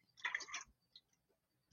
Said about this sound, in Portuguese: desculpa, deixa eu tomar uma água aqui.